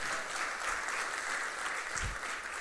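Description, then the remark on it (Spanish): An audience applauds steadily, a dense wash of many hands clapping at an even level for a couple of seconds, with no voices standing out. “Increíble, un aplauso para, de verdad sí, gracias a Dios.”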